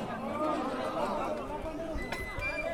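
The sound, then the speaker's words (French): Dense crowd chatter from many overlapping voices at a street demonstration launched by the DAL on Saturday 19 October, marching from the Goutte d'Or quarter toward La Chapelle, a steady babble with occasional louder calls and brief knocks. “Samedi 19 octobre s’est déroulée une manifestation lancée par le DAL”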